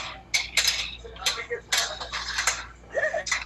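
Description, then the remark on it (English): Dishes and cutlery clatter during cleaning in a quick, irregular series of sharp clinks and knocks, with a brief murmur of voice near the end. “I'll be, I'll be cleaning noisy motherfucker.”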